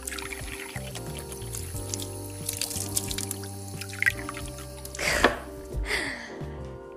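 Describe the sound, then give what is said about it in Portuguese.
Running water from a bathroom tap splashes as someone washes their face, with soft drips at first and two louder gushing bursts near the end, over a steady low hum and no voices. “lavar a cara e ajeitar-me, porque uma pessoa acorda que nem uma miséria. Café de mal. Desculpem, vão ouvir água agora.”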